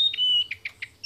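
An icterine warbler sings, a quick run of bright, high chirps and whistled notes repeated in short bursts, with a faint low rumble underneath.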